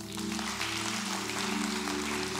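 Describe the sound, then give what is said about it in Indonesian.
An audience applauds steadily in agreement during a sermon, a dense wash of clapping that holds for a couple of seconds over a low, sustained hum. “Yang setuju berikan tepuk tangan dulu yuk.”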